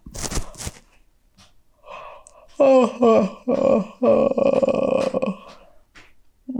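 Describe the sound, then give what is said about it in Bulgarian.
A short breathy rustle, then a long, loud yawn from the character Ana Ana: a drawn-out voiced groan whose pitch slides and wavers for about three seconds before trailing off. “Най-накрая Ана Ана се прозява”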